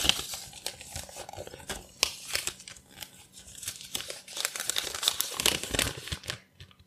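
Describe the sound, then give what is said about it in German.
A slip of paper, drawn from a glass, crinkles and rustles as it is unfolded, with irregular bursts of bright, crackly noise over about seven seconds and no voices. “Gut, ich habe es vorhin noch gesagt, ich lege den Zettel weg, damit es hier nicht so kraschelt.”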